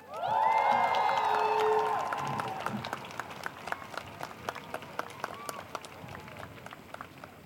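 A crowd bursts into loud cheering and whoops over applause, then the voices fade and steady, dense clapping carries on for several more seconds.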